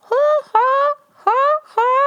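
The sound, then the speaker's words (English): Four loud, harsh bird squawks ring out, coming in two quick pairs with a short pause between them. “there's a bird squawking there.”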